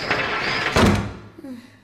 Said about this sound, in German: Ehe Freddy es sich versah, hatte ihm Poppy die Tür vor der Nase wieder zugeschlagen.